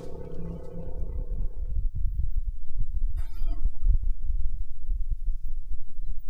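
Audio recorded by a rover on Mars: a droning mechanical hum fades into a deep, muffled rumble with scattered sharp pops and thuds of pieces of rock falling and clattering, irregular, with no voices.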